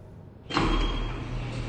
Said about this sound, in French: Immédiatement, les battants de la grande porte du fond s'ouvrirent, laissant une vive lumière chasser les ombres de la pièce.